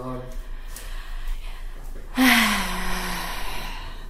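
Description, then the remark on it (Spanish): A man with allergies blows his nose once in the background, a sudden honking burst full of breathy rush that fades over about a second, heard at moderate loudness. “tiene alergia, entonces es él al fondo sonándose.”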